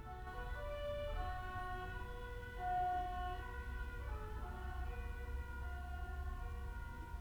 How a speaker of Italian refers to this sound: Ecco, questi suoni così non li ho mai sentiti, ci sono tante sirene, ma di questo tipo non mi era ancora capitato. Questa cercherò di amplificare il suono,